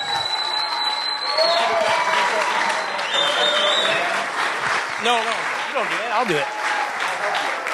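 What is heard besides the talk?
audience applause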